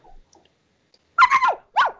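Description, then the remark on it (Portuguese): A small Yorkshire terrier barks in a quick burst of three high, sharp yaps followed by one more after a brief pause, fairly loud, with no talking. “É um York, é um York.”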